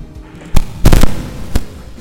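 explosion sound effect

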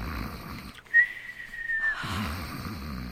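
man snoring

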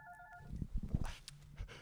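mobile phone ringtone ringing

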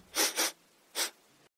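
sniffing

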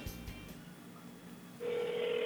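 telephone ringing tone

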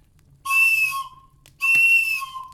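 toy whistle being blown

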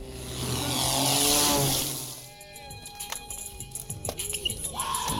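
airplane taking off overhead

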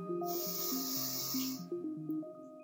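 deep inhale

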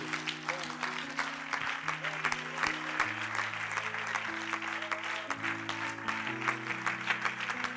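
audience clapping hands

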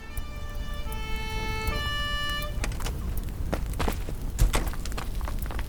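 fire engine siren

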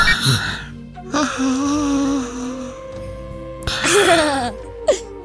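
snoring

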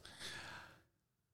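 dog snoring

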